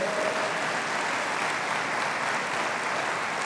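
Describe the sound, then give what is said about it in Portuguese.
A church audience applauds the Lord during a sermon, a steady, dense, even wash of clapping that holds at a constant loud level for the whole stretch without breaks or voices. “Você pode aplaudir o Senhor de toda a tua vida?”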